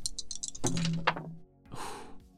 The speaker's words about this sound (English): I oh, will roll my dice. Okay.